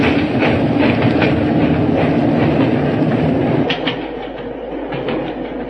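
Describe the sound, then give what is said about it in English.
A train on the British railway rumbles steadily along the rails, wheels clattering in a loose rhythm, loud before easing slightly as it moves on, with no voices over it. “Stop the train, I say!”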